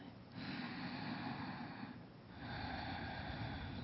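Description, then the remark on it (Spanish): Slow, airy breathing at the person's own pace during a guided breathing exercise, a long inhale and exhale with a brief pause between breaths, steady and unhurried with no talking. “En esta, en esta etapa, concéntrate en esa respiración. Inhalar, exhalar.”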